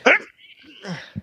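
A single sharp, loud sneeze bursts out at the start, then trails into softer breathy murmurs and a brief low sound at the end.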